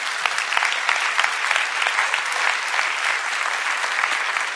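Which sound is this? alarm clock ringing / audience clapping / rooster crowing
audience clapping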